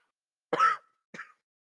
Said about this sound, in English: Sorry, I coughed. That was unprofessional.